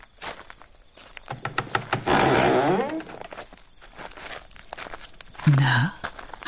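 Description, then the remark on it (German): Several people walk along together to their car, their footsteps crunching and shuffling in an uneven rhythm, with a louder scraping, rustling burst in the middle and a brief low rumble near the end. “Wir beide werden euch noch ein Stück zu eurem Wagen begleiten.”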